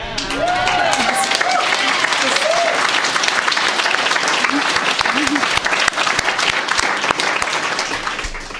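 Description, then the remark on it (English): A crowd applauds loudly and steadily for several seconds, a dense patter of many hands clapping, with a few scattered voices and cheers rising over it near the start. “I know you guys already got applause, but I just felt like you needed a little bit more.”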